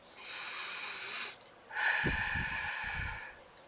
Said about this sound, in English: Number four, learn to nurture through breathing. Pause and take a deep breath.